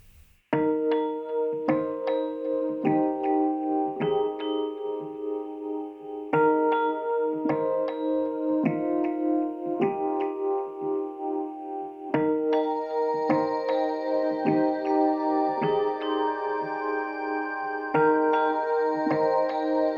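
A song plays with bright, chiming melodic notes over steady chords, its phrases repeating in regular bars and swelling fuller in the second half. No one talks over it.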